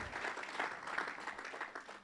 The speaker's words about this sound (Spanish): Denle un fuerte aplauso a la palabra del Señor